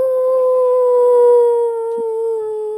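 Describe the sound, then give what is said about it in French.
A child's voice imitates a wolf howl: one long, steady, high-pitched note held loud for about three seconds, sagging slightly in pitch near the end. “Bah en fait, euh, j'avais imité le loup.”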